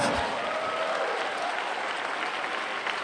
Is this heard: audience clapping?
yes